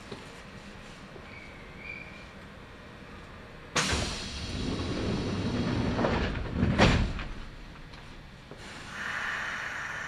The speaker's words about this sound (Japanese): まもなく発車いたします。扉が閉まります。ご注意ください。